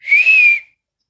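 A person whistles one clear, steady note lasting just over half a second. The pitch bends gently up and back down, with a slight dip in volume partway through, then silence.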